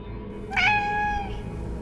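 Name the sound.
cat meowing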